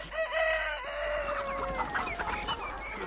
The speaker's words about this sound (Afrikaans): Nou wat vir 'n oorige ou han is dit? Die son is lankal op.